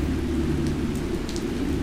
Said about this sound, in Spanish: Entonces comienza a llover y cubre su testa con el saco y apura el paso para hallar un lugar donde resguardarse.